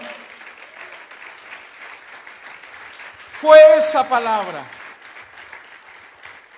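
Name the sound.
audience applauding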